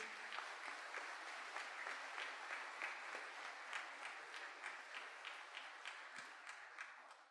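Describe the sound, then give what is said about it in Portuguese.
An audience applauds the Lord together, a dense, steady wash of many hands clapping that holds at an even loudness for about seven seconds, with no voices over it. “Você pode aplaudir o Senhor porque você é valoroso para Deus?”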